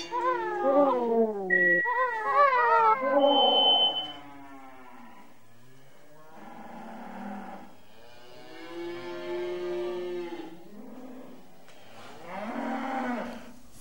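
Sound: cow mooing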